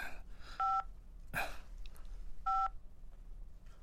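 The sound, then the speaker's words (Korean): Two short, clear mobile phone keypad tones beep about two seconds apart as someone searches about truffles on the phone, with a brief rustling noise between them and no one speaking. “휴대폰으로 검색해 보세요 아, 아 그렇지 송로버섯 네.”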